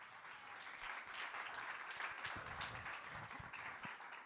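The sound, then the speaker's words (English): A crowd applauds four guests steadily, dense overlapping clapping at an even, sustained level from start to finish with no pauses. “I just want to give, I think we should give each four of our guests here a big, big, big.”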